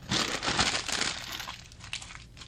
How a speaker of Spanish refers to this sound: Tenía las hojas de papel en blanco, pero le aburría verlas tan blancas, tan vacías, y las arrugó.